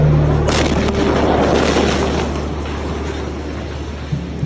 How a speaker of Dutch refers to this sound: Social media stroomt vol met beelden van een enorme explosie in de Libanese hoofdstad Beirut in het Midden-Oosten. Een schokgolf gaat dwars door de stad. Ramen sneuvelen, auto's vliegen door de lucht.